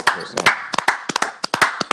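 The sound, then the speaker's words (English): A short burst of hand clapping for Mitchell Robinson, sharp irregular claps from a few people, about a dozen in two seconds, with a voice faintly underneath. “Hey, can we all uh, clap it up blocks.”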